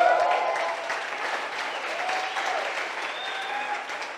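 An audience applauds a staff member steadily, a dense wash of many hands clapping that stays fairly even in loudness throughout, with no voices standing out above it.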